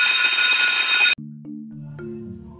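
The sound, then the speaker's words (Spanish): A loud, harsh school dismissal bell rings steadily for about a second, then cuts off abruptly and gives way to a short sequence of low, steady melodic tones. No one speaks. “Cierto día, al sonar el timbre de la salida”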